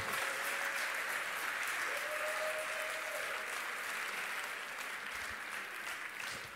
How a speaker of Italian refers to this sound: Amen. Potete andare, facciamo un applauso ai ragazzi.